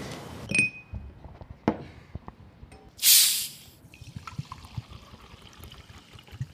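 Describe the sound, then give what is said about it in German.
A few handling clicks, then a sharp hiss as a bottle of Walser sparkling mineral water from the Climeworks office fridge is twisted open, followed by a soft, steady fizzing and faint pouring fizz, with no talking. “Bist du trinken? Oh ja, jetzt gerne doch. Wasser mit oder ohne? Ja, wenn schon mit.”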